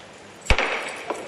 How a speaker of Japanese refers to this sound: 裏手のお客様にハンマーが落ちます